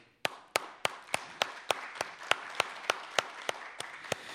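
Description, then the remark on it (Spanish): Audience applause for a band, with one loud, steady clap cutting through about three times a second over the softer wash of the crowd's clapping. “Entonces, … con nosotros aquí, un aplauso compañeros.”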